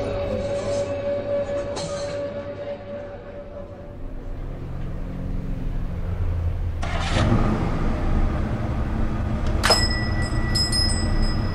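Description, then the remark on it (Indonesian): A Wolseley car's engine rumbles steadily as it rolls up, with a sharp clunk and a brief high squeal of brakes as it comes to a halt in front of the Hill Hotel. “Hari Kamis, 28 November pukul 6, Wolseley benar-benar berhenti di depan Hill Hotel dan Jack masuk ke dalamnya.”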